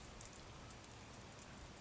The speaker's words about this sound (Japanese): 煙るような雨であった。